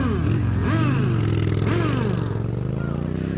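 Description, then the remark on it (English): Loud motorcycle engines rumble continuously outside a biker bar in Sturgis, South Dakota, with two sharp revs that swing the pitch up and back down over a steady idling growl. “How about outside this biker bar in Sturgis, South Dakota, what they think of the new, well balanced Equilibrium cigars?”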